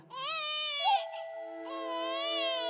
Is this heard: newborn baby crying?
yes